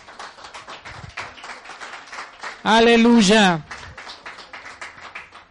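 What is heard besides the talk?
audience applauding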